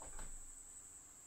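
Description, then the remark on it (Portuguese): A cricket's steady, high-pitched trill runs unbroken through the whole moment, fairly faint and constant, with a soft knock or thump right at the start. “Esse barulho é um grilo, gente.”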